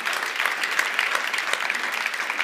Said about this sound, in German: Also damals habe ich da noch nicht dran gedacht, ja, aber da können wir mal Jesus einen Applaus geben.